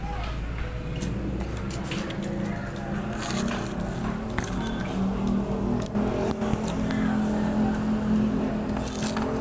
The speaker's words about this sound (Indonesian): Eh motor si Oki datang dah. Wih motor baru. Om itu motor Pak USW ya pasti